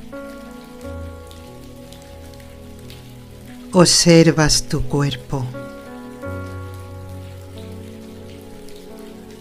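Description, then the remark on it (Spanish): Steady rain patters continuously throughout, a soft hiss layered with low sustained musical tones, while a calm voice speaks briefly in the middle. “Solo relajarte, dejarte llevar, escuchando mi voz y el sonido de la lluvia.”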